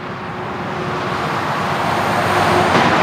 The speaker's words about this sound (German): Gut, dann genießen wir jetzt weiter die Aussicht auf die Autobahn 45.